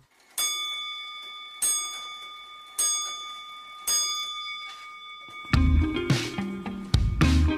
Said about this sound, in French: Au quatrième top, il sera temps d'écouter le journal de la création sonore.